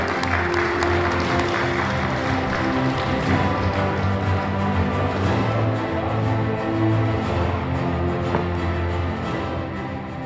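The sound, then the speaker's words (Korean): A crowd applauds at the inauguration ceremony of the new chair of the New York Korean professional associations council, held with a New Year event at the KCS auditorium in Bayside: sustained, dense clapping that holds steady for the full ten seconds, with a faint low tonal hum underneath and no voices. “큰 박수를 부탁드립니다.”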